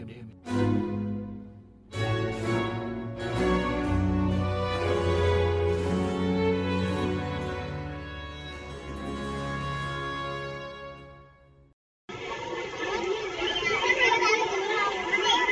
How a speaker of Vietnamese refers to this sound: Vâng thưa quý vị, đó là những âm thanh vui vẻ háo hức của những đứa trẻ ở thôn Lũng Trư, xã Thượng Phùng, huyện Mèo Vạc, tỉnh Hà Giang khi được nhận những món quà chơi là ô tô cần cầu búp bê